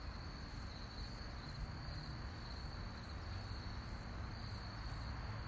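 A common conehead katydid calls with short, high, buzzy bursts repeating about twice a second in a steady rhythm, over a constant thin insect drone and low background noise; no one speaks.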